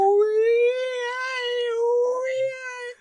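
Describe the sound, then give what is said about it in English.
A single voice imitates a strange, whale-like underwater noise heard on a recording: one long sustained, wavering tone held for about three seconds, fairly loud, with no other sounds. “He plays a recording of an underwater noise, and he thinks that she's heard it before.”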